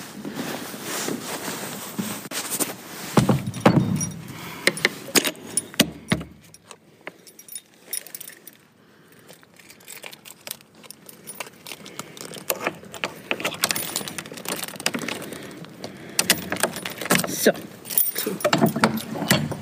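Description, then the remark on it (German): A heavy door of a tower, the Grey Tower, swings shut with a solid thud, surrounded by keys jangling and clattering handling sounds, with a quieter stretch in the middle. “Und so wie die Tür des Grauen Turms gerade ins Schloss gefallen ist”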